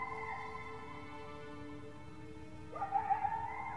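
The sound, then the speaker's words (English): Coyotes in the dark woods howl in sustained, wavering tones, then break into a sudden burst of very loud, high, chaotic yips and chattering near the end, close by, with no one speaking. “We were talking about a girl that he had a crush on at school when we were suddenly interrupted by coyote chatter.”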